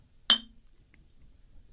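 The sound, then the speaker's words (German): A single bright clink of glasses touching in a toast, sharp, ringing briefly before fading, with a faint second tick afterward. “Also, Prost.”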